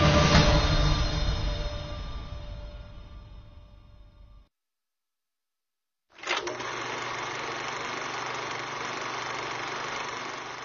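A loud, rushing train rumble slowly fades, drops to silence for about two seconds, then bursts back in and holds as a steady, heavy mechanical roar with a deep low drone, as a train rushes onto the head of a bridge.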